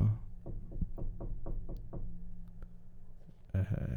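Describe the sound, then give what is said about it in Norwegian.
A series of about seven firm knocks on a studio door in a steady rhythm, by someone who needs the studio, followed by a brief burst of muffled voices at the end. “Nå er det noen som banker på her og sier at de skal ha studio”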